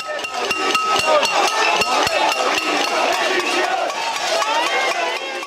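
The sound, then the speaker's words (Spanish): A crowd bangs on pots and pans in a loud, clattering din during a cacerolada protest in the pandemic, with sharp metallic strikes repeating irregularly over a dense wash of clanging and shouting voices. “No sé si te acuerdas de estas caceroladas, sana que sucedieron en la, parte más difícil de la pandemia, cuando la, gente, cuando la gente estaba más crispada.”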